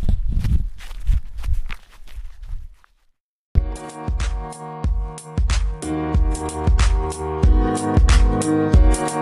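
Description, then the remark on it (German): Steady footsteps crunch along at a walking pace for a few seconds as a person carrying a full bucket of freshly picked raspberries walks back toward the kitchen, then stop briefly before loud music with a strong rhythmic beat takes over. “So, und der Eimer ist voll und ich streife zurück Richtung Küche.”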